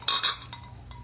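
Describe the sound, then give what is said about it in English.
Two quick, bright clinks of glasses tapping together in a toast, followed by a faint lingering ring and soft background noise. “Okay. Cheers. Cheers. Cheers.”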